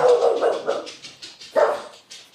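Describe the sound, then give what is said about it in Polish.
A dog, Tomcio, barks in a quick run of sharp, fairly loud yaps, pauses briefly, then lets out another bark and a few softer ones; no one speaks. “Twój pies się z tobą nie zgadza, Bartek.”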